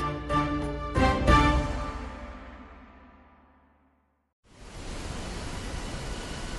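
A resonant musical chord rings out and slowly fades to silence, then a steady, loud rush of a waterfall starts abruptly and continues without a break.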